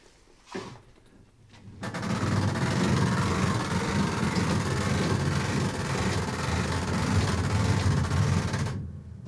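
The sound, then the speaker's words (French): A coin-operated mechanical music player's motor being wound up: a dense, rapid ratcheting whir that runs steadily for about seven seconds, fairly loud, with no voices. “Donc j'ai remonté le moteur et en principe, il marche avec une pièce de monnaie.”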